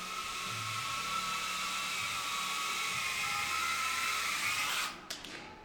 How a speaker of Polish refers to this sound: No bo te drony są śmieszne ogólnie, co nie? To tak. śmiesznie wygląda. Coś tam leci, mega.